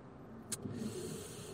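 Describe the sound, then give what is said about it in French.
A steady wash of traffic noise from a highway bridge, with a low rumble of cars and trucks and a brief louder whoosh as one passes, heard alone without talking. “juste à ma gauche il y a le pont de l'autoroute et ben ça se voit que la vie elle a repris”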